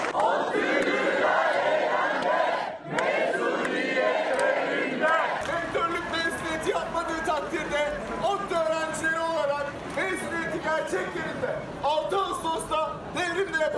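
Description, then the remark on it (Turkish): A large crowd of METU students, academics and graduates chants the slogan 'mezuniyetin yeri devrimdir' in unison against the ban on graduation ceremonies at Devrim Stadium, loud, with rhythmic repeated phrases and raised voices throughout. “mezuniyetin yeri devrimdir sloganıyla 6 Ağustos için çağrı yapan ODTÜ'lüler rektörlük bahçesini Devrim Stadyumu'na”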